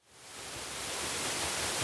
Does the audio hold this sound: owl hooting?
no